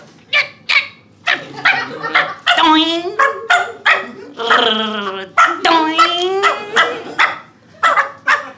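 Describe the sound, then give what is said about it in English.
A person imitates a small terrier on a trampoline with sharp, rapid yaps, blending in warbling, screeching tones like an old dial-up modem connecting. The voice is loud and continuous, alternating bursts of barks with sweeping electronic whines. “A terrier on a trampoline dialing up old school broadband.”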